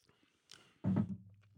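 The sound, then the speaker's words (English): A soft, brief slurp is followed by a loud gulp of Krombacher Helles lager beer, then a low hummed murmur of approval trailing off. “Let's give this hell's a try.”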